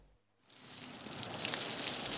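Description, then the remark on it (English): After a brief silence, hot water gushes from a bath tap, turned on by Nana the nanny to fill a child's bath, and keeps running, a steady bright hiss that swells slightly louder as it flows, with no voices. “She turns on the hot water for Michael's bath.”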